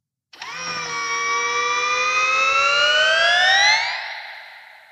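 An electronically altered factory sound, pitch-shifted by an octave shift from a low tone to a high, shrill tone: a loud, sustained harmonic tone that glides slowly upward like a siren for about four seconds, then fades out. No one speaks.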